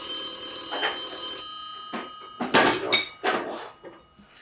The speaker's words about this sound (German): Klingelt das Telefon? Warum klingelt das Telefon? Oh. Jetzt ist das ein FaceTime-Anruf.